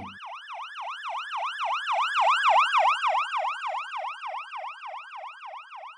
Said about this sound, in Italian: Quando un'ambulanza si avvicina con le sirene spiegate, il suono della sirena è decisamente più acuto di quando l'ambulanza si sta allontanando da voi.